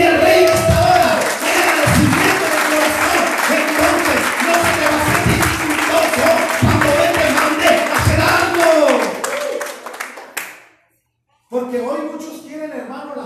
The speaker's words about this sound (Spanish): Alguien puede aplaudir.